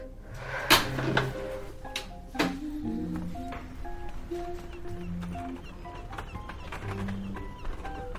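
A heavy prison door, the last door on the way out, clanks and creaks open, with a couple of sharp metallic bangs near the start followed by lingering rattles and faint ringing resonance.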